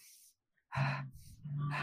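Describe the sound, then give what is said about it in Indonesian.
Someone demonstrates effective breathing for exercise: a short, airy inhale through the nose, a brief pause, then loud, breathy exhales through the mouth with a voiced, huffing quality. “Soalnya dulu aku diajarin tuh jadi untuk nafas yang efektif ketika berolahraga itu adalah masuk dari hidung, keluar dari mulut gitu loh.”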